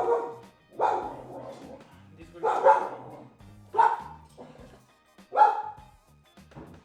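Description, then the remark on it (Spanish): A dog that has wandered in barks repeatedly, about five sharp barks spaced irregularly, loud, with faint background noise between them. “Ah, sí, hay un perro.”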